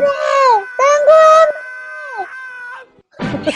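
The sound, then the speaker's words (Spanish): A voice mimics the high, wailing screams of women at a women's prison in several drawn-out, wavering cries that slide downward, loud, ending with a short burst of noisy voice. “Viste que yo vivo cerca acá de la cárcel de mujeres y estas chiquillas putas gritan en la mañana, en la noche, gritan, se pegan sus gritos y yo en cualquier momento empiezo a gritar así, weón.”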